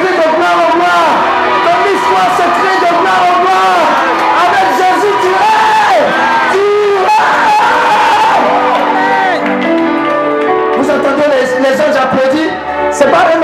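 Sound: audience cheering and applauding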